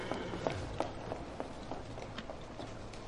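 Quick, evenly spaced footsteps of someone running away, a steady patter of light impacts over a faint background hiss.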